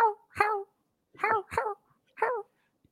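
A person imitates a dog barking, giving five loud barks in uneven bursts with short pauses between them.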